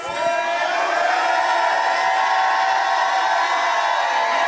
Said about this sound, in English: Lift your hands and give God the greatest shout of praise.